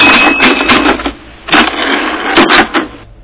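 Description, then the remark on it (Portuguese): Rapid, clattering keystrokes come in three dense bursts with short pauses between, loud, from a typing sound effect (a wave sound file for a computer) of someone typing on a mechanical keyboard or typewriter, with no voices. “Tem, é, tem aqui eu digitando aqui na.”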